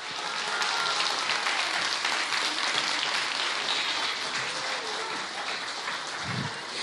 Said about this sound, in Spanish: Nuestro mago Mario Conde, aplauso más fuerte para Mario, por favor.